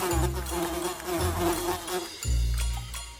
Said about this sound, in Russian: Мухи сначала накинулись на мясо, но потом зажужжали и накинулись на Женю.